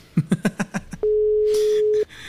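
The line tone of a WhatsApp call being placed rings out as one steady, loud, low-pitched hum lasting about a second, right after a quick run of rhythmic laughter, with a short rush of noise over it.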